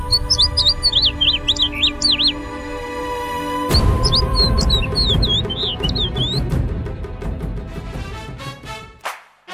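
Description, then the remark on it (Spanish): Birds chirp and tweet busily in quick, high bursts over a steady low rumble at a university campus bird sanctuary in the municipality of Tepatitlán, Los Altos de Jalisco, several calls overlapping before the sound cuts off abruptly near the end. “pues ya escuchamos esto acerca de esta especie de santuarios, de santuario para las aves allá en el municipio de Tepatitlán y es muy curioso ver eh, cómo, conviven, ¿no?”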